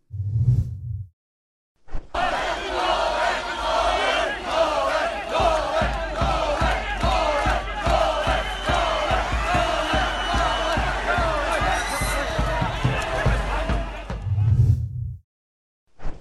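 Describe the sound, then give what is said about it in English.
A loud, chaotic protest crowd in Australia, chanting "Free Nole" and following a car that left Djokovic's lawyer's office, shouts and chants continuously for about thirteen seconds amid scuffling and sharp knocks as Australian police use pepper spray, with brief low rumbles before and after the uproar. “And as they followed a car which left Djokovic's lawyer's office and were met with attacks from the Australian police through the use of pepper spray.”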